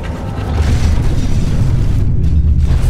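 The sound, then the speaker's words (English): A loud, deep rumbling crash of steel and concrete skywalks ripping free of their ceiling rods and collapsing, more than 60 tons falling onto dancers below; a sustained heavy roar with gritty debris noise lasting several seconds, without any voices. “More than 60 tons of steel and concrete fell onto the dancers below, spraying bystanders with deadly glass shrapnel.”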